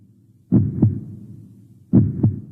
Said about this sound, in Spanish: Definida por sus latidos, se acercaba sin pausa a los últimos compases, donde los más bellos acordes concluirían la definición de su existencia.